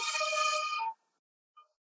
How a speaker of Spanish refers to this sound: la ambulancia. Eh, espero que no haya interrumpido